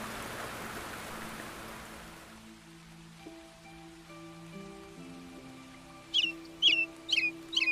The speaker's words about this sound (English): woke to the sound of birds singing outside his room. The open wall panels made this kind of thing a ritual, birds chirping, wake up, train, eat, sleep, repeat.